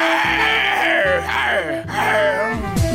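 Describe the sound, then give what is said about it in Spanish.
Loud, harsh zebra mating calls played as a mobile phone ringtone sold as 'cebras copulando' (zebras copulating): a few strained, groaning brays that rise and fall in pitch, running almost without pause for about three seconds. “recibirás en tu teléfono el auténtico sonido de cebras rugiendo de amor.”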